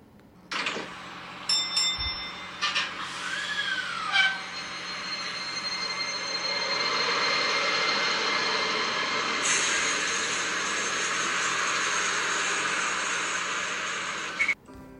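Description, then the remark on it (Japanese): A single-car Toei Arakawa Line tram rolls slowly past, picking up speed on grass-overgrown tracks, a steady rumbling hum with brief squeals and clanks of wheels on rails, and a soft bell near the start. “窓を開けて外を眺めていると聞き慣れた音が耳に飛び込んできた走るという言葉が似つかわないスピードで1両だけの車両が速度を上げていく都電荒川線は草が伸びた線路の上を今日もいつものリズムで通り過ぎていく”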